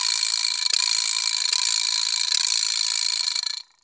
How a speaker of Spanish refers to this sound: Boing. Matraca. Triqui traque.